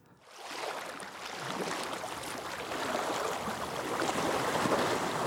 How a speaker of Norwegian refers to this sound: Bølgene slår mot brygga i Kalvahavet, det lille tettstedet innerst i Stegebukta syd på Sjælland i Danmark.